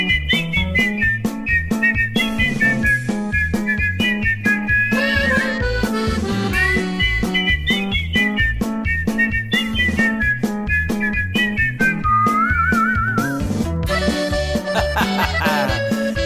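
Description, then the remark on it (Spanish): A man whistles a lively, wavering tune over a steady, thumping musical backing, the bright melody carrying clearly and continuously from start to finish. “si hubiera ópera de chiflidos, era él en primera fila porque le hace”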